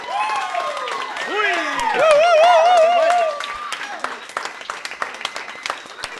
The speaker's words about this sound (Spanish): Un aplauso a Castillo.